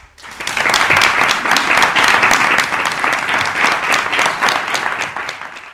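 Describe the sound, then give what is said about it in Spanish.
Sustained audience applause for the director and founder of a project, a dense crackle of many hands clapping at once, steady and loud for several seconds before tapering slightly at the end. “que es el director, el fundador del proyecto y de, esta locura de conectaros, de conectarnos a todos a través de la red, yo pues pido un aplauso también.”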